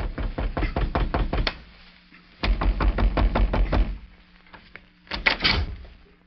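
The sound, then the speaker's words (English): Three bursts of rapid, firm knocking on the wooden front door of a home in Bedford, Texas, each a quick run of raps separated by short pauses, with the last round briefer than the first two. “It was almost two weeks later when a young girl in Bedford, Texas, answered a knock at the front door of her home.”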